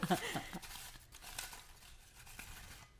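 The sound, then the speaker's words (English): Playing cards being shuffled for a game, a papery burst of riffling at the start that settles into softer, steady rustling and flicking. “you go ahead and shuffle. Shuffle, shuffle, and you pick.”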